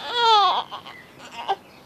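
A baby lets out a high, drawn-out fussy wail that slides downward, followed by a few softer babbling sounds and small whimpers, with no one talking.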